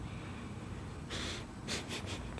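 Sniffing at a freshly opened bottle of 16-year-old whisky before pouring: one longer inhale through the nose, then three quick, short sniffs in succession, fairly soft against a quiet background with no talking.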